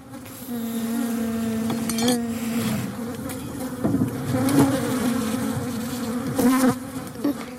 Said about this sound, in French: Quels insectes tu veux nous parler L'abeille.